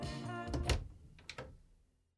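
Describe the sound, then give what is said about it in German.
A short electric intercom buzz sounds as the intercom button is pressed, followed by the clunk of a door latch releasing and a second click as the door swings open, with no voices. “drückt den Knopf an der Gegensprechanlage und öffnet die Tür.”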